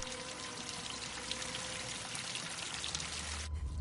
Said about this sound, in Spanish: Un charco de agua se extiende por el suelo del almacén. Cae al sótano por las grietas que separan los tablones. El líquido sale de un abrevadero.